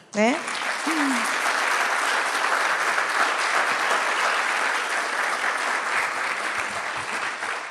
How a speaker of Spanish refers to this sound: Eh, así que bueno, eh, vamos a darle eh, nuestro cálido feliz cumpleaños a la Virgen con un aplauso.